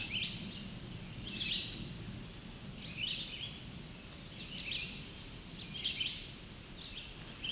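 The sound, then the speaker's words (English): A chestnut-sided warbler sings short, high, bright phrases about every second and a half, five or six times, over a steady low rumble of wind or outdoor noise. “Oh, this is don't know if I've seen chestnut side warbler up here before, so might be new to me around for this area.”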